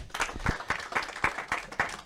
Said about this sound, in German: Ja, einen großen Applaus für, für